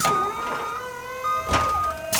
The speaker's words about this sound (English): Lower the platform so all the cars will be able to get onto it.